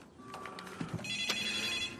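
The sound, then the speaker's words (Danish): A telephone rings with a steady electronic ringtone, high bright tones holding for a couple of seconds at moderate volume, with a few soft clicks and background noise underneath and no one talking. “Nå, der er telefonen.”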